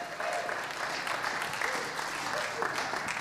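A crowd applauds steadily for a few seconds, a dense, even patter of many hands clapping at once that stays loud and close throughout without fading.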